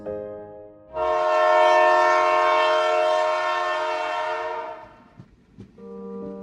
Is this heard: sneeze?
no